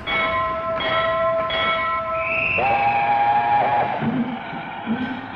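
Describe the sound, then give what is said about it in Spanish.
A train rumbles past steadily while its horn sounds in long, sustained blasts, shifting pitch partway through, with continuous rail noise underneath and no voices. “Gracias al ferrocarril, Atahualpa conoció Tucumán en unas vacaciones en que su padre, telegrafista, llevaba a la familia en el tren”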